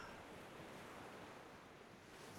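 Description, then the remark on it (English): Steady, soft rush of ocean surf washing onto a shore, a continuous broad wash of water noise with a faint breeze, fairly quiet, no voices. “And turns to the sea, to the waves.”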